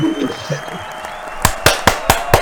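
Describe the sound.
Five sharp, evenly spaced hand claps ring out, a short burst of applause for the winning team following a brief faint murmur of voice at the start.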